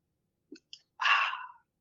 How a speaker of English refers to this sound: It's gonna get loud. I'm gonna open a pop.